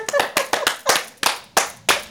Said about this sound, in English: Round of applause. Let me hear that ass clap.